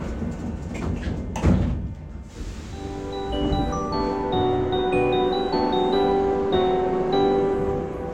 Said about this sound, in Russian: Осторожно, двери закрываются. Следующая станция – Добро.